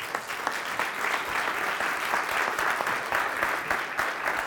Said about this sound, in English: Give, give God a hand clap